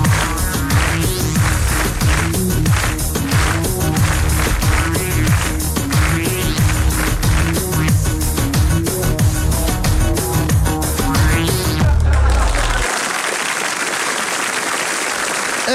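A loud Turkish pop song plays with a steady driving beat and full instrumentation, then cuts off near the end and gives way to a burst of applause.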